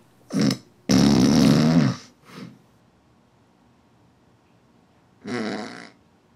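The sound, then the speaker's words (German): A man snores in a few rough, rasping bursts, one long and loud, then falls silent for several seconds before another snore, like breathing pauses in sleep apnea. No one speaks. “Ja, man, man hört ihn fast nicht mehr schnaufen, also ein bisschen, so ein bisschen kurz schnarchen.”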